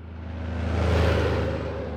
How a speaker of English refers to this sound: Back at the Tyson plant in western Kansas, a steady stream of trucks carry cattle in and meat out.